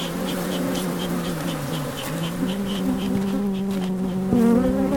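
A dense, steady drone of many bees buzzing around a hive as a beekeeper lights a smoker, continuous, with overlapping wingbeat tones shifting in pitch and a brief louder swell near the end.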